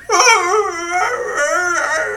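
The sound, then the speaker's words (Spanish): A person imitates a maned wolf's howl with a loud, strained, wavering cry that rises and bends in pitch, held for about two seconds with a brief break midway. “Tienen un ladrido que yo describiría más como un grito.”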